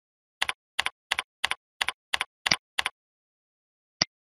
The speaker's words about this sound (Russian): Введем свой логин и пароль для доступа к профилю.